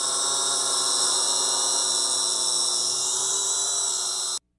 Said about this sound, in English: Run your drone.